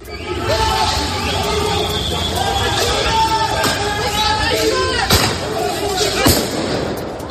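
Street clashes between protesters and police in Paris during a riot: a loud, dense crowd shouting continuously, punctuated by sharp bangs like firecrackers or explosions, with two prominent blasts near the end.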